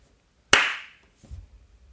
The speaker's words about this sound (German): Dein, dein Gesicht bewegt sich anders wie, wie das, was ich höre. Da kann ich auch nichts hören. Klatsch mal in die Hände.